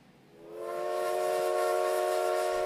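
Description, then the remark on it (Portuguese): A steam train whistle blows in one long, sustained blast before the train departs, rising in quickly and holding steady and loud with a breathy hiss around its layered, organ-like tone. “Meu Deus, trem para tirar daqui a pouco.”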